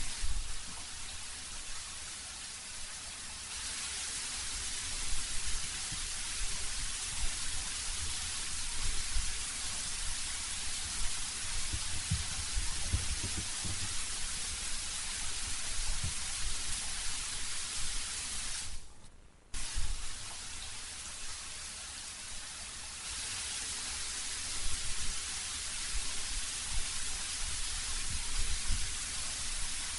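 Steady rain falls continuously at night, recorded on a Saturday night, with a broad hiss, scattered drops and patter landing, briefly cutting out for a moment before resuming; no voices are heard.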